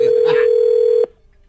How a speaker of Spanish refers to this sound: Oiga, se cortó la llamada